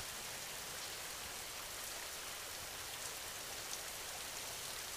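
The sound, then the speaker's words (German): Steady rain falls without pause, a dense, even hiss of countless drops with faint tapping patter on a surface, fairly quiet and consistent throughout, with no voices. “Tropfen für Tropfen lässt du durch den Regen deine Anspannungen immer mehr los.”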